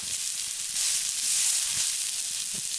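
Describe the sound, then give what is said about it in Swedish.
Grated potato pancakes (råraka) sizzling in a frying pan in an outdoor kitchen, a steady bright crackling hiss with a slight swell midway and a few soft low knocks, no voices. “Potatisen på här. Det fräser så gött.”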